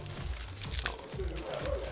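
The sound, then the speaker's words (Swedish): Steady crinkling and ripping as rigorously taped packaging is torn open, with irregular bursts of crackling over roughly two seconds and a low murmur beneath. “Jag ber om ursäkt för tejpningen, jag ser att den är rigorös.”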